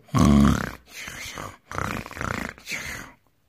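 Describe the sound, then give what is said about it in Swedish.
A voice imitates snoring coming from one of the jars in a courtyard: four throaty, rasping breaths in a row, the first loudest and deepest, the rest softer, with no other sounds around. “Det kom snarkningar från en av krukorna.”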